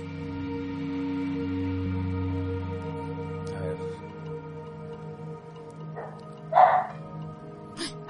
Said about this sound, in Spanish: ¿Escucharon? sí, es mi perro.